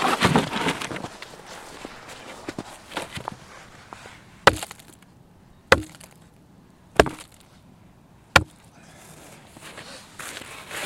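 Four loud, sharp wooden thuds from a big hammer driving stakes into the ground, evenly spaced about a second apart, following a stretch of softer rustling and scraping.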